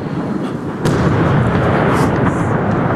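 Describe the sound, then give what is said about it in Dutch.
A Kalibr cruise missile flies over and explodes in a residential area of the city of Zaporizhzhia: after a brief quieter moment, a heavy, booming blast breaks in and rolls on as a loud, sustained low rumble until the end. “En dan even later ontploft die.”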